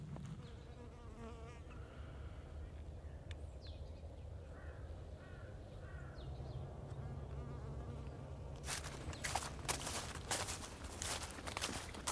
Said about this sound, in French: C'est une abeille euh, d'Europe de l'Est.